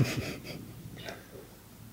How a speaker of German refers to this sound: Das also nicht die Kamera, was quietscht, das war der Hund. Genau, das war der Hund.